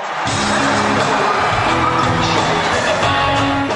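A large arena crowd at a New Year's Eve concert in Madison Square Garden roars and cheers continuously, a dense wash of voices with whoops and shouts, loud and sustained with low musical hum underneath.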